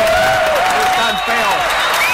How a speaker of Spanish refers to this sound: Bravo, aplausos por los feos. ¿Dónde están los feos en este público?